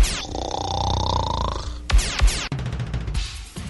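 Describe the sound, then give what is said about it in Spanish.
A loud, drawn-out rasping snore rumbles for nearly two seconds, then gives way to a few sharp thumps and a busy burst of noise. No one speaks. “Sus noches son solo para roncar.”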